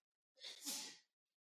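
A single sharp sneeze bursts out during a radio show, a quick intake rising into a loud, breathy explosion that fades within about a second, then silence.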